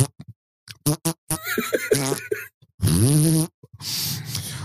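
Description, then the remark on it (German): A voice imitates a trout's wet, bubbling fart from the water of a pond: a few short sputtering bursts, then a long buzzing raspberry that wavers in pitch, ending in a breathy hiss. Fairly loud, with no talking. “Flatulenz-Forelle”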